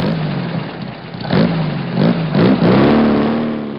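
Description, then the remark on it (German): A 2009 Lamborghini Huracan Performante sports car engine roars, revving in several sharp bursts with rising pitch before settling into a loud, sustained acceleration. “Wir nehmen den Lamborghini Huracan Performante 2009 und damit hängen wir sie ab.”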